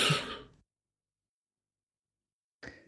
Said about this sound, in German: Wer atmet denn da so schwer ins Mikrofon?